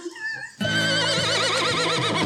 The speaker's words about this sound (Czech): Ale tady něco řechtá. Máme koně.